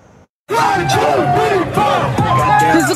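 A large crowd of street partiers shouts and cheers loudly on Granville Street in Vancouver, many voices yelling and whooping together in a dense, continuous roar after a brief quiet start.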